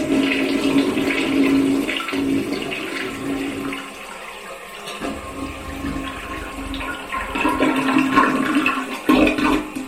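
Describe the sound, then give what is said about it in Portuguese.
A toilet flushes after someone presses the flush behind them, a loud rushing gurgle of water that swirls and churns steadily for several seconds, briefly easing before surging again near the end. No one speaks. “A, a, a, apertei atrás a, descarga.”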